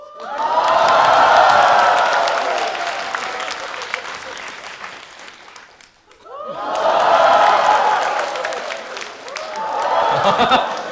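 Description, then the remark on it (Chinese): A live audience at a stand-up comedy show cheers and applauds loudly in two long waves as the performer on stage drinks water, the roar fading briefly to near silence around the middle before surging up again with whoops and clapping. “为什么台上那个人一喝水，底下就欢呼啊？”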